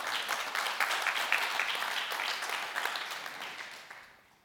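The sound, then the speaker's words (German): A crowd applauds in praise of a man, with dense, steady clapping that holds strong for several seconds and then fades away toward the end. “Applaus”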